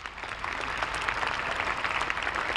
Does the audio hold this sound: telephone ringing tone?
no